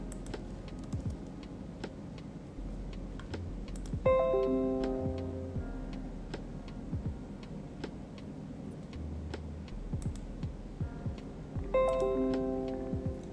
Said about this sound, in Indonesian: Oh iya itu bunyi tang ting tung ini notifikasi dari uh, eh, Mthread web Mthread gitu. Jadi aku ada login di web juga.